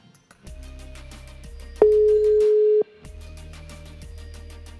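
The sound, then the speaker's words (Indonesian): A single steady electronic ringing tone of an outgoing phone call to a friend sounds for about a second, loud, rising over quieter background music with a low droning hum; no one speaks. “Ini gue gue telepon aja nih temen gue nih. Bentaran gue telepon teleponnya. Coba gue telepon dulu.”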